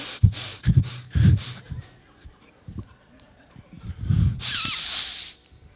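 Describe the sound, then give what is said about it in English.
A voice imitates someone who only inhales and never exhales, with a string of short, rough gasping breaths, then one long, sustained hissing inhale lasting about a second, airy and fairly loud. “Nobody lives on just inhaling.”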